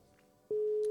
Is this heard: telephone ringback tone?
yes